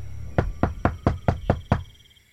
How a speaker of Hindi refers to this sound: कुछ दूर पैदल चलने के बाद राजन अपने घर के दरवाजे पर पहुंच गया और अपने घर का दरवाजा खटखटाने लगा